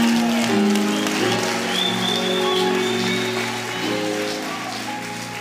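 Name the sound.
audience applauding loudly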